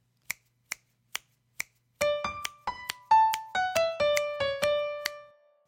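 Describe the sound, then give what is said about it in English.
Four crisp finger snaps ring out alone at a steady, even tempo, marking the beats, then a sustained melodic instrument line enters and moves through several notes over that beat, with most of the melody falling between the beats. “Here, I'll snap the beats and then I'll play the melody again, and you can hear that.”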